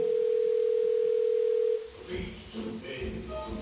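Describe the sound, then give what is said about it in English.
A steady, unbroken telephone ringing tone hums loudly for under two seconds as a call is placed, then cuts off abruptly as muffled voices begin talking. “Isn't your phone ringing at the same time?”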